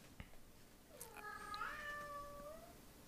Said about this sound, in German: Meine Katze jammert.